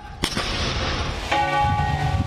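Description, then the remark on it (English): A deep, sharp bang rings out over low outdoor rumble, followed by a single strike of a large Windsor Castle bell, tolled on the death of the Queen, whose rich, resonant overtones hang and ring on. “The soulful bells of Windsor Castle, only rung on the death of a monarch, tolled for the first time in 70 years.”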